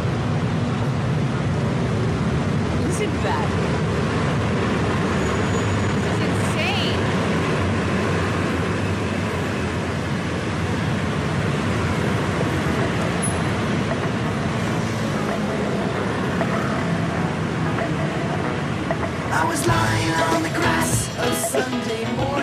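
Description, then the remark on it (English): A dense, steady roar of rush hour scooter traffic streams past without pause for the whole stretch, scooters coming down over a bridge and turning left and right at the bottom, with cars going through, and a voice speaking briefly over the continuous engine drone. “They come down over this bridge. They're all coming down in rush hour”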